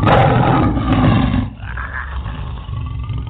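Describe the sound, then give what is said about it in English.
A crowd of voices, urged by a speaker to roar, lets out a loud, sustained lion-like roar for about a second and a half, then fades into a lower, rumbling din of cheering and shouting. “Roar for your power.”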